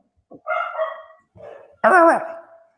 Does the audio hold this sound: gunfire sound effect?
no